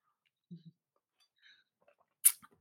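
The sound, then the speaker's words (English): A quiet sip from a glass of Tanqueray gin and tonic: a soft knock early on, faint little clicks, then one brief airy slurp near the end. No one speaks. “Wait, I'm going to take one sip.”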